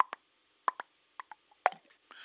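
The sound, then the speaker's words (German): A male capercaillie's courtship song from its perch in a tree: sparse dry clicking notes quicken, then one loud, hollow cork-like pop, the main note, rings out, followed by a soft scraping hiss like a sickle or scythe being whetted. “Und nach diesem Hauptschlag kommt das sogenannte Zischen oder Wetzen, wie es auch heißt.”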